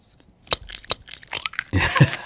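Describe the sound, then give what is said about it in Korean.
An egg being cracked, played as a hidden treasure-hunt sound effect on a radio show: a few sharp taps on a hard edge, then a brief crackling crunch as the shell breaks apart. No voices. “계란 깨는 소리가 여러분들 일부에 나가는 노래 중간에 나옵니다.”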